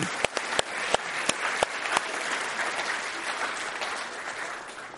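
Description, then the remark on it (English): An audience applauds steadily, opening with a few sharp, loud individual claps before settling into a dense, sustained wash of clapping from many hands. “A big round of applause for the money.”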